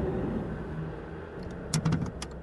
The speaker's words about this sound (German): Hier spricht die Polizei. Bitte fahren Sie rechts ran. Ja, ja, ich mach ja schon.